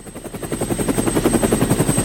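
A helicopter rotor thuds in a fast, steady rhythm, fairly loud, with a constant engine whine underneath and no voices.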